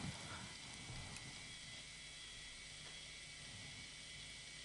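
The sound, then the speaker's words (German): A constant, faint high-pitched whine and hiss from old original computer hardware, the monitor's hard drive and the monitor running in an authentic setup showing net art, steady throughout with a low mechanical rumble underneath and no voices. “Man kann hier, wenn man deutlich hinhört, Dinge hören, die jetzt so ein Pad nicht mehr macht, so das Rauschen, dieser, dieses, dieses hochfrequente Summen der LC-Festplatte des Monitors.”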